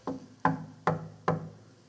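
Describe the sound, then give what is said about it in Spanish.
Four firm knocks by hand on a thick, solid wooden door with very large hinges, the door about a finger-length thick, evenly spaced about half a second apart, each a dull thud with a short resonant ring, and no voices. “Pero, a ver, la puerta, voy a tocarla.”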